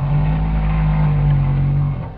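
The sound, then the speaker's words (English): A single long, low whale call recorded in the 1950s holds a steady droning pitch for about two seconds, loud over a muffled, rumbling underwater background with an old-recording quality. “Again, here's what the whale calls sounded like in the 50s.”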